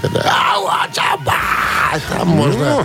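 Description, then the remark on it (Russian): A man briefly imitates the harsh, screamed vocals of rock singers, with a few strained, gritty yells in close succession, loud, mixed with a little speech. “Кто а, орущие ребята, кричащие, им чуть полегче”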